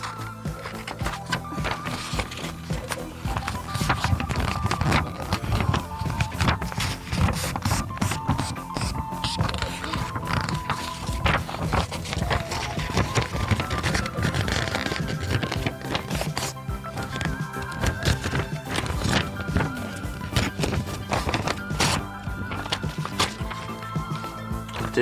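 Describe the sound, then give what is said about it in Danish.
Paper being folded into a triangle, with steady crinkling and rustling and irregular sharp crackles throughout at a fairly even loudness, and no one speaking. “Lad os prøve at folde en trekant.”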